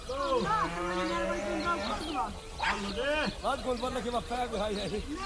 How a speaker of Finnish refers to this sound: Karja oli tänään vuoden ensimmäistä päivää laitumella ja paimenet huutelevat, miten parin talon lehmille tuli koti-ikävä kesken kaiken ja ne lähtivät kylään omin päin muutamia tunteja muita ennen.